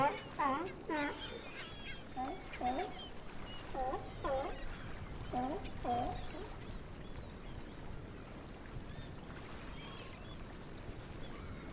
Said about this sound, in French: Et au-dessus d'elle, des oiseaux marins virevoltent en toute liberté.